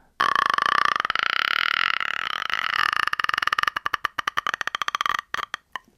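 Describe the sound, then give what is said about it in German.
A voice imitates a ghostly horror-film croak: a sustained, strained throaty rattle that breaks into rapid clicking pulses, loud, with no words spoken. “ich kann so ein Geräusch machen von, ähm, von einem Horrorfilm, von The Grudge”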